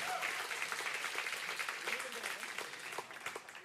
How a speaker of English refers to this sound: Round of applause for both teams, for both teams.